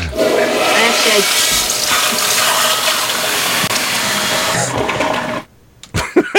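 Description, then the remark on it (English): A toilet flushes loudly, a rushing gush of water that swirls for about five seconds before cutting off abruptly, followed by a few faint clicks and brief noises. “Uh, we'll just do the the shart with the uh, uh, flush.”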